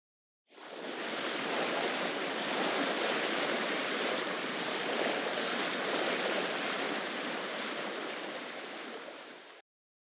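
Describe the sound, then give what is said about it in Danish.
A steady, continuous wash of ocean waves and rushing water as a fishing cutter sails out to sea, loud, with no distinct breaks between swells, cutting off abruptly after about nine seconds. No voices. “Og inden længe, så var de begyndt at sejle ud på havet med den her fiskekutter.”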